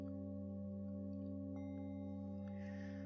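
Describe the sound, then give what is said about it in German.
A small singing bowl rings with a high, steady, sustained tone, its layered overtones humming evenly and unbroken for the whole stretch, clear with no voices. “der hohe Ton der kleinen Klangschale holt dich wieder ganz hierher zurück.”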